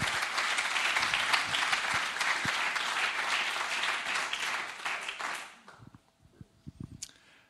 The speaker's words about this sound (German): James, komm auf die Bühne. Hol dir nochmal einen Applaus ab.